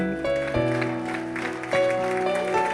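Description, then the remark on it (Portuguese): An audience claps steadily together in praise of the Lord during a worship service while sustained keyboard or organ chords play loudly over it, the notes shifting a few times as the applause continues throughout. “Uma salva de palmas ao Senhor.”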